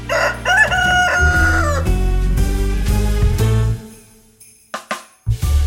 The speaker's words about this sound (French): Selon les croyances, un coq aurait chanté le matin du 25 décembre, célébrant à sa façon la naissance de Jésus-Christ.